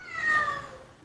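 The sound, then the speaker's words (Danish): A single drawn-out cat meow, tonal and slightly falling in pitch, with no talking over it; a cat in the background of a correspondent speaking from Israel. “er, er det en kat, du har i baggrunden?”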